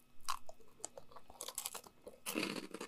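Crunchy chewing with irregular bursts of crisp bites and mouth noises, loudest in a dense crunch near the end, with no talking.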